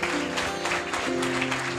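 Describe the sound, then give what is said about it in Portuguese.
A crowd at a Christian worship service claps steadily and densely, a continuous wash of many hands at moderate volume, with sustained keyboard-like tones humming underneath the whole time. “Você pode dar uma salva de palmas para isso?”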